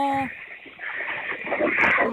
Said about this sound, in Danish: Jeg kan høre grise nu.